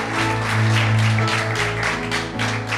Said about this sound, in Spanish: Aleluya. Ahí está, hermano. denle palmas. Ahí está. Ahí está.